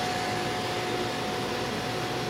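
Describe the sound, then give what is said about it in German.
A hair dryer, used by a doctor in a private clinic to dry a plexiglass slide holding a blood sample for a malaria test, blows in a steady, unbroken rush of airy noise with a faint whining hum, holding at a constant loudness throughout with no voices. “Der Arzt föhnt die Plexiglasscheibe mit der Blutprobe.”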